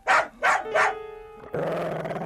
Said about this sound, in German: rappelte sich auf und bellte dreimal kurz.